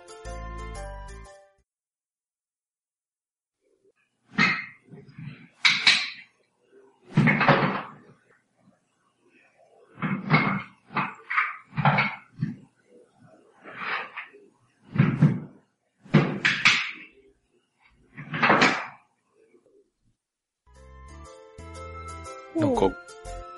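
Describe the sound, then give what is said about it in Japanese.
Hard lumps of charcoal knock, roll and clink together in a series of uneven bursts with brief pauses between, as a craftsman works in a charcoal-making workshop, bracketed by short snatches of music at the start and end. “ゴロゴロ、ゴロゴロっていうのかななんか丸いのを転がしてるような音、うん、と、あとな、うん、なんかその炭、炭があった、なんていうの、炭の音ですよね、きっと。”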